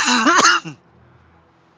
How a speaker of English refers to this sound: but um, sorry to cough in your ears there.